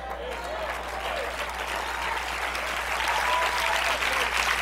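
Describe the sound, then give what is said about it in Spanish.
Steady audience applause, a dense wash of many hands clapping at an even loudness throughout, with faint voices mixed into the crowd noise. “Yo entiendo que es difícil aplaudir en esta noche.”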